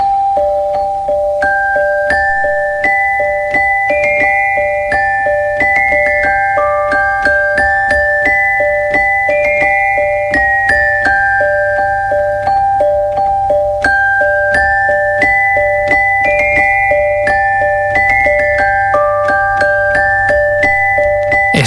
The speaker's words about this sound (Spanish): que quizá muchos confunden con un xilófono, con un vibráfono, eh, es un instrumento que se llama celesta. Y bueno, parece que está inocente, que no hace nada, pero todo el mundo lo hemos escuchado alguna vez.